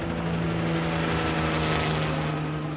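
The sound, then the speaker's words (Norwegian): A steady, loud helicopter drone with a strong low hum and constant rotor roar as helicopters are sent off to evacuate wounded soldiers, holding even throughout without any voices. “Så kom meldingen om skadde, og helikoptrene ble sendt av gårde.”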